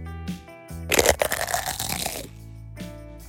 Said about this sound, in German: Alles begann mit einer Foley-Aufnahme für einen Chipsbiss. Das klang ungefähr so.